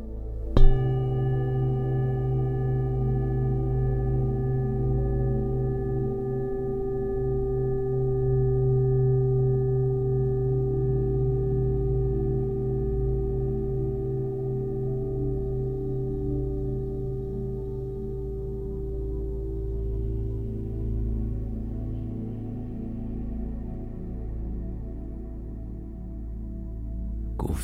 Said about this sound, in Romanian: În momentele următoare vei auzi sunetele unor boluri tibetane care îți vor străbate întregul trup, aducând în câmpul tău frecvențe sacre.